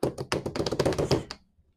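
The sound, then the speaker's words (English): A quick drum roll sound effect played before announcing a football playoff prediction: a rapid run of crisp, even hits rattling for just over a second, then cutting off into a short fading tail. No one speaks. “With the two versus one game, I have the drum roll, please.”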